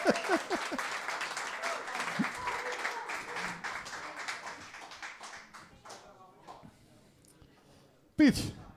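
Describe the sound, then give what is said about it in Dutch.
Audience applause fills the room for several seconds, dense clapping that gradually thins and fades out, with a few voices and a brief loud burst near the end. “Applaus”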